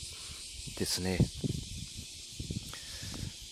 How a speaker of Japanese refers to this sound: 今日は、今は朝、えー、6時46分、えー、ちょっと朝の散歩トークでございます。えー、セミの声が非常に賑やか